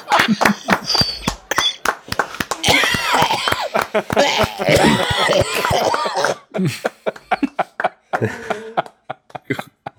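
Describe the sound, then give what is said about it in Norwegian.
A heavy coughing fit: a long run of loud, harsh, rapid coughs and wheezy gasps that breaks into shorter, spaced-out coughs toward the end. “Hva hoster ja, du opp? Hoster du opp ei nyre, eller?”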